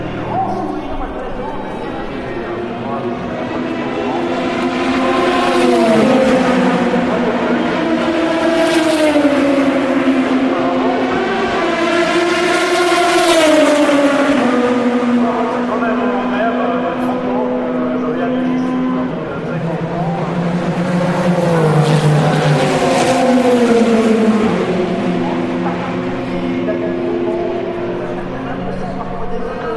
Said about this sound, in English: And it's good night from me, and I think we'll just sit here and listen to these cars for a few minutes before we hit the sack ourselves. Enjoy this.